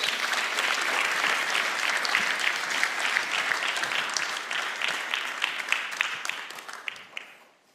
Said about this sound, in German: Gebt ihm mal einen ganz, ganz warmen Applaus